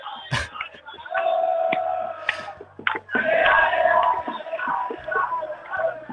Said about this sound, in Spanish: cada tanto alguien empezaba a cantar y de repente todo el mundo arrancaba a, cantar